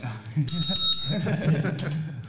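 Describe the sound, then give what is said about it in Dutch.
A hand bell, chosen by a player as a game buzzer over a horn, gives one bright ring that hangs for under a second before fading, while people talk and murmur underneath. “Wie kiest er voor de toeter en wie kiest er voor de bel? ik ga voor de bel.”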